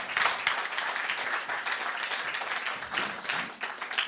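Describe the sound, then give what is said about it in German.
A crowd applauds steadily, a dense wash of many hands clapping at once, fairly loud and sustained throughout with no voices standing out. “Geef nog een applaus.”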